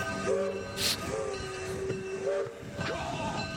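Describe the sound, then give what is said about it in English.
A train sound effect: a steam whistle sounds in sustained tonal blasts over a rumbling, hissing rail background, loud and close, with no talking. “are you hopping on the Carl Jung train I have to all aboard”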